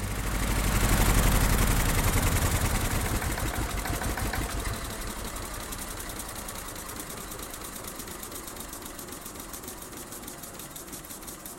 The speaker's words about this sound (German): haben findige Köpfe im Erzgebirge, in Brand-Erbisdorf gesagt, wir setzen einen Dieselmotor dort rein. Der Elektrokarren, der immer Eidechse hieß, war jetzt eine Ameise, eine Dieselameise.